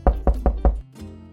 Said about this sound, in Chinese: 杰西站在门口。敲了敲门